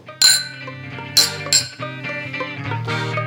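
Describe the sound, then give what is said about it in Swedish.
Three bright glass clinks ring out in a toast, the first two about a second apart and the third quickly after, each leaving a shimmering tone that lingers over a low background hum. “Och med det sagt tackar vi för idag och säger skål!”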